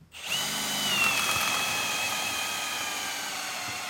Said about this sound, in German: Die Zimmerer bohren in ein neues, helles Balkenstück, das in einen alten Balken eingesetzt ist. Zusammengehalten wird das Ganze mit Eisenstiften.